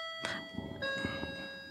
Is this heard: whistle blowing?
no